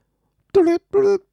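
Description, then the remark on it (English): A voice imitates a phone ringing with two short, steady-pitched buzzy tones, evenly spaced, fairly loud against silence. “that's my phone ringing.”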